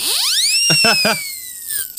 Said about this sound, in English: Skeptic whistle, had to bust that one out.